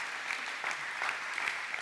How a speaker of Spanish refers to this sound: Dele un fuerte aplauso al Espíritu de Dios que está aquí con nosotros.